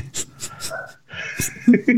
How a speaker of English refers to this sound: As the dog answers in the background, don't use me. All right. No, she's probably barking.